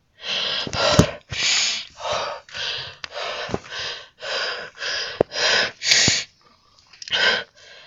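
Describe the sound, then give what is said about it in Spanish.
Someone gasps for breath over and over, about a dozen harsh, ragged inhalations in a steady rhythm, loud, with no talking. “… buscando el aliento de los pulmones”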